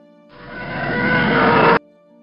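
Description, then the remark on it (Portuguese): A harsh, roaring TIE Fighter starfighter engine, heard from far away and coming from the northwest, swells steadily louder for about a second and a half, then cuts off abruptly, leaving a faint low hum behind. “Quando tu termina a transmissão, tu começa a escutar o som do motor de um TIE Fighter.”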